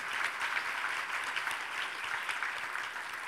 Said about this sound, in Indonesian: Mari kita berikan tepuk tangan buat kesepakatan kita.